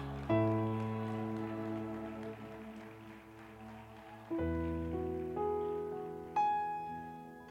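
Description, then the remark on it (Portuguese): A church audience applauds the Lord with steady, dense clapping that runs throughout, mixed with sustained keyboard chords that change a few times and swell in again near the end. “Aplauda o Senhor.”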